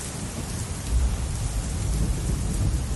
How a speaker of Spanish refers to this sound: Maldita lluvia. Parodia insensata. Siempre me juega malas pasadas.